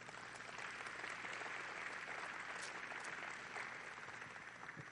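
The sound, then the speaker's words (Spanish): An audience applauds God steadily for several seconds, a dense, even wash of many hands clapping at once with no voices standing out. “Así es que démosle un aplauso a Dios.”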